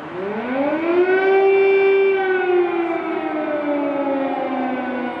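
Air raid sirens wail across the Ukrainian capital during the Russian missile attacks, a loud sustained tone that rises at the start and slowly sinks over several seconds, with no voices present.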